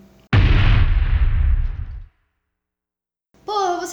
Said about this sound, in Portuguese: A câmera filmava tudo, e naquela noite um míssil acertou o blindado em cheio. A explosão foi grande.